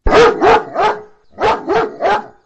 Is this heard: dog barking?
yes